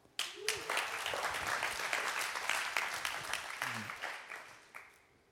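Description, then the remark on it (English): A crowd breaks into sustained applause, a dense wash of many hands clapping at once that holds steady for several seconds before thinning out, with a few faint voices mixed in. “Just give them a clap.”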